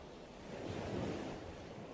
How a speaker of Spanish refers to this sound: Me conecto con mi respiración, con el sonido de las olas que vienen y que van.